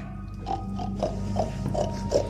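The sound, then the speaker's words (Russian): Voices imitate pig grunts, a series of about six short nasal snorts in a loose rhythm, moderately loud over a steady low background hum, made by people crawling in a circle with eyes closed in a game. “Ползите по кругу и закройте глаза. Три! Хрюкайте!”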